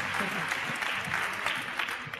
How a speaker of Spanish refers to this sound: Recibamos con un aplauso a Sergio. Y de pie, un aplauso de pie.